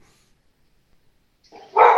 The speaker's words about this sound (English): Who's a good doggy?